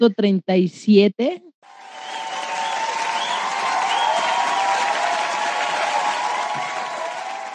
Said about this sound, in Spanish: Botón de aplauso, por favor.